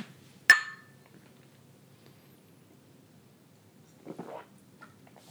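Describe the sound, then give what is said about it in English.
Two glasses clink together once during a toast, a sharp, bright tap with a short ringing tail, followed a few seconds later by a soft rustling clatter. “Cheers.”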